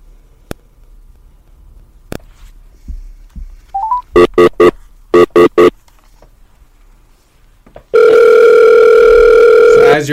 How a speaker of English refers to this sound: getting the dial tone right now.